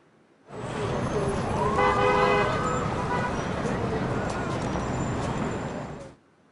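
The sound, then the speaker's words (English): A dense city street ambience in Times Square, New York: steady traffic rumble, with car horns honking in short harmonic blasts and indistinct crowd voices mixed into the continuous roar. “And here's a recording of Times Square in New York.”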